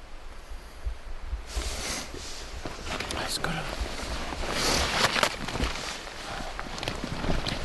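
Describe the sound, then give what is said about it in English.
Footsteps crunch and rustle through brush and leaves among trees as someone steps back through the trees toward a trail, an uneven series of steps with twigs snapping and foliage brushing past, over a soft outdoor background. “I step back through the tree”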